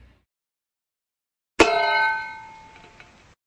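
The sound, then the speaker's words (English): After a silent pause, someone spits into a metal bowl with one sharp clang, and the bowl rings out with a bright, shimmering tone that slowly fades. There is no talking. “as someone spits into a metal bowl”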